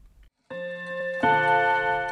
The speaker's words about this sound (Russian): Она была очень встревожена тем, что часы пробили 13 раз – и спрашивала меня, как, по-моему, кому из наших близких это предвещает смерть.